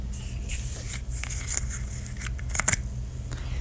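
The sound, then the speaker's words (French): Quiet scraping and small crackling clicks as a loosely fitted bottle cap is twisted open and its aluminium seal, like those on small coffee creamer cups, gives way, with a brief cluster of sharper snaps near the end. “Et je vais ouvrir le bouchon.”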